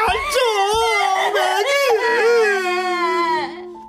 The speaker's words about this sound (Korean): 친구를 잡고 그렇게 울어보기는 처음이었습니다.